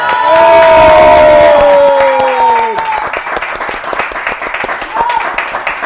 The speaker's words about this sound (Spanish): Oigan, aplausos a Mario.